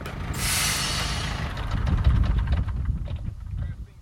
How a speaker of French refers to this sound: Yvan vient de garer son camion devant le tas. La remorque se lève